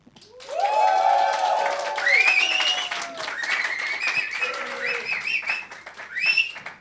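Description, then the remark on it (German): A live audience of fans erupts on a count of three in loud cheering and clapping for several seconds, with whoops and high shouts rising over steady applause before it fades slightly and flares again. “Mal ganz kurz bitten, die sogenannten Hörnchen, denn unser Podcast heißt Lass hören, richtig auszuflippen auf drei.”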